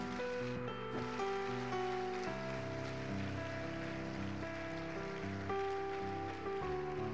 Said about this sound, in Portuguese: Vamos aplaudir a Jesus bem alto.